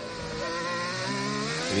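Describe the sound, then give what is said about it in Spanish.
A Formula 1 car's engine screams at high revs during a qualifying lap on super-soft tyres, a dense, buzzing harmonic whine without a break, its pitch climbing near the end as it accelerates. “En el coche de Daniel Ricciardo, neumático super blando, es el que nos falta por hacer una vuelta.”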